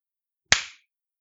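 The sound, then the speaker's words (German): A single sharp hand clap rings out alone, a crisp, bright snap that fades quickly into silence, with no voices or other sounds around it. “Jetzt klatscht es hier, Junge. Aber kein Beifall, das sag ich dir.”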